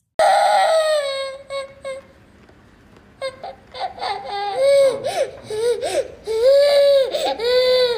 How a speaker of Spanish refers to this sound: Escuchaba gemidos de niños, gemidos roncos, como el que haría un animal al que le están arrancando la garganta a pedazos.